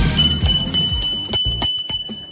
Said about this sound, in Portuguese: Essa aqui é a campainha do artesanato mineiro da nossa amiga Laura Neves.